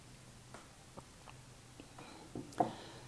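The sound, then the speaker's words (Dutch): Someone takes a quiet sip of water: soft mouth clicks and small wet sounds, then a slightly louder gulp near the end, all faint, with no talking. “Ik neem even een slokje water.”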